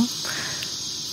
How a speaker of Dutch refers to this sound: Een soort klankband van een rijdende trein en dat klinkt zo.